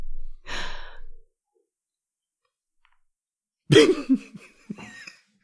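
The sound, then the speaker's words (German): A soft, breathy rush of air, then a pause and a single loud, abrupt sneeze with a short voiced tail fading into quiet. “ja, ja. Gesundheit.”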